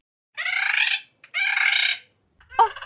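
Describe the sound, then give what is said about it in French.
A bird returning from a long journey calls loudly: two long, harsh, buzzy cries in quick succession, then a shorter squawk after a brief pause, with no voices. “Mes amis du ciel, les oiseaux.”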